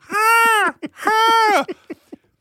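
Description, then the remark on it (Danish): A voice imitates the screech of a hovering gull with two long, shrill, wailing cries that bend downward at the end, each followed by a few short, choppy yelps, fairly loud. “Og så skriger den...”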